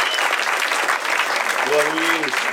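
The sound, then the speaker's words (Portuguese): An audience claps steadily for a man invited up from the crowd, a dense, even crackle of many hands at constant loudness, while a single voice briefly calls out over the applause toward the end. “Palmas”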